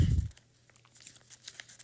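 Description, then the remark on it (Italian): Dry rustling and crinkling of pages of the newspaper La Stampa being turned to page 11, a soft thump at the start followed by a run of brief papery crackles, with no voices. “Eh, scusate, sto andando alla pagina all'interno, pagina, eh, pagina 11, dove prosegue.”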